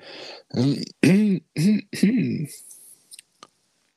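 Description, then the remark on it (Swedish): A few throaty, grunting vocal noises, followed by a short breathy rush of air as someone blows their nose, then a couple of faint clicks. “Den eh, snyter ut lite så innan så.”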